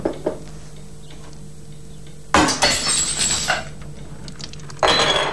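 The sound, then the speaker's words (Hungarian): A teacup shatters on the floor with a sharp, bright crash, followed by a second of tinkling fragments, then a brief second clatter of pieces near the end. No one speaks. “Most a csésze már nem csésze.”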